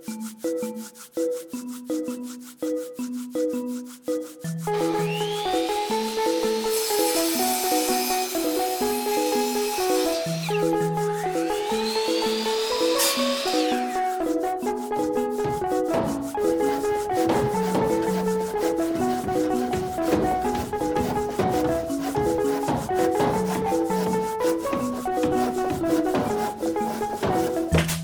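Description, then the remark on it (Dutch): Rough, rasping strokes of wood being sanded or planed during furniture making in a woodworking workshop, a couple of longer passes standing out clearly, set against steady tonal background music with no one talking. “En te midden van al dat opmeten, uitzagen, hameren en bijschaven ontstaan er unieke uitwisselingen en nieuwe verhalen.”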